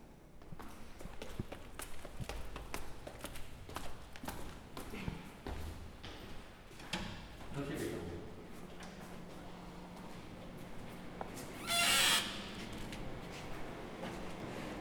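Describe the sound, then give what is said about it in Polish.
Air conditioning running in a museum on a very hot day, over 30 degrees outside: a steady low constant hum and drone runs underneath, overlaid by scattered footstep-like thumps and taps, with a brief louder burst of hiss toward the end. “Towarzyszy nam taki szum, to jest szum klimatyzacji.”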